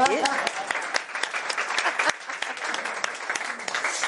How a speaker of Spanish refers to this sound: Gracias, ¿eh? le damos un aplauso, ¿eh?